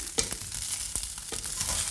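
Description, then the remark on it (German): Tofu sizzles steadily in a hot pan, a dense crackling hiss, while a spatula stirs it and loosens stuck bits from the pan bottom, with several sharp clicks and knocks against the pan and no talking. “Ich rühre wieder mal ein bisschen um und ich achte immer darauf, dass äh, man kann den Tofu ein bisschen auf die Seite schieben.”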